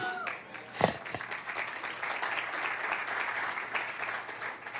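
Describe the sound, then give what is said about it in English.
A large audience applauds steadily, a dense wash of many hands clapping at once that holds for several seconds, with a few louder claps near the start. “Those of you in the second sanctuary, I hope you were clapping a little bit louder.”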